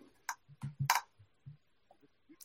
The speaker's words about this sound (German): Ah, ich habe ich hab dich gemutet, weil du so laut getippt hast.